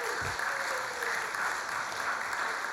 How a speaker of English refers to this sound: Guys, we get a round of applause? Look at this lovely work.